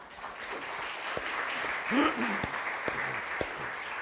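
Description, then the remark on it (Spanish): An audience applauds God at the preacher's call, steadily, a dense wash of clapping for several seconds, with a brief voice or shout rising faintly through the middle. “Qué hermoso es Dios. Denle un aplauso.”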